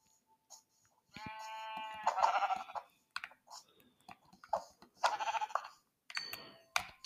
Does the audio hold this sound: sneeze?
no